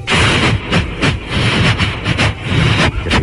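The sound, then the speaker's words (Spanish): A voice imitates a marching military band, loud, with steady rhythmic bursts of breathy, percussive noise mimicking drums and brass, continuing for a few seconds without words. “Venía para acá y me encontré con una banda militar que venía marchando.”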